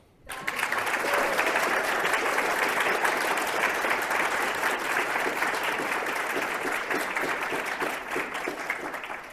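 An audience bursts into sustained applause, a dense, steady patter of many hands clapping loudly for several seconds, tapering slightly toward the end with no voices over it.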